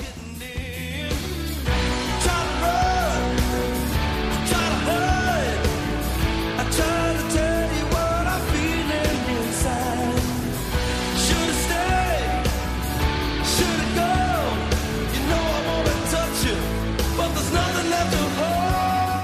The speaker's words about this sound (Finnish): Kuunnelkaa tämä kertsi. Ja nyt tulee kitaraa isosti sisään. Nyt tulee.